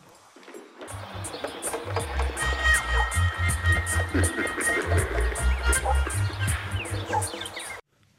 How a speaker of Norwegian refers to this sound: Ja, du fikk akkurat en veldig eksperimentell låt